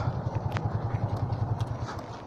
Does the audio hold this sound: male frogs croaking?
no